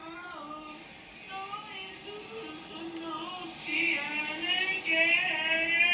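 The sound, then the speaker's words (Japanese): A neighbor in the next hotel room sings a wordless melody in long, sustained notes that wander up and down in pitch, heard through the wall and growing a little louder, seemingly one person imitating someone else's singing. “壁ドンしたらしばらく静かになったんだけど、また、あの20分ぐらいしたら聞こえてきたわけですよ。で、もう何が聞こえてきたかっつったら、またこの上手な歌声が聞こえてきてさ”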